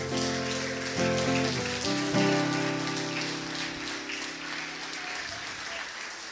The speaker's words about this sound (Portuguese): Aplauda o Senhor, igreja.